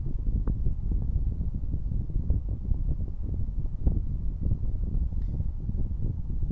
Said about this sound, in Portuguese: Pessoal, não sei se vocês estão ouvindo, tá, tá ventando um pouco aqui.